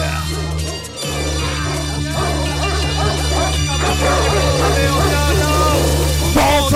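Repeated dog barks cut through a loud, bass-heavy music track, recurring at intervals against the steady beat rather than standing alone.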